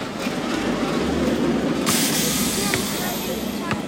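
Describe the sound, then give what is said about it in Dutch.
A roller coaster train at Cedar Point amusement park rumbles steadily along its track, loud, with occasional sharp clacks and squeaks of wheels cutting through the continuous roar. “Heerlijk, het geluiden van achtbanen hier in Cedarpoint.”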